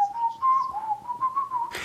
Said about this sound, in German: Ist dir langweilig? Weil ich pfeife? Ja. Das fragst du immer, wenn ich pfeife kann ja auch sein, dass es dir gerade sehr gut geht